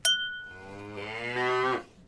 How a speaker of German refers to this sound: Wo kommt denn jetzt die Kuh her?